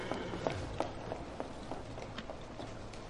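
Quick, evenly spaced footsteps of someone running, about ten light thuds over a few seconds, growing a little fainter as they move away, over a soft background hum.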